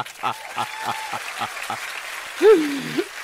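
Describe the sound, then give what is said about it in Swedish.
Steady rhythmic clapping from a political audience giving a standing ovation in Almedalen, beats evenly spaced, followed by a loud rising-and-falling whoop of a cheer near the end. “Jubel, stående ovationer i Almedalen.”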